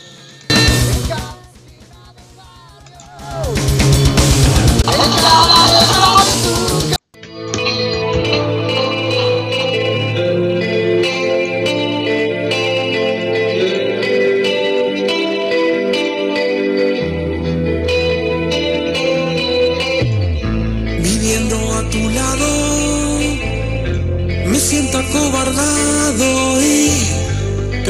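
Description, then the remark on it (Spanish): A band's song plays loudly: a brief, heavily effected intro with a short dip, then a full, dense arrangement with deep bass, reverb-soaked guitars and distortion that continues steadily to the end. “Muy buena banda, la recomiendo. Y escuchen este sencillo de ellos.”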